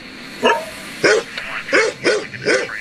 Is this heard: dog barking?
yes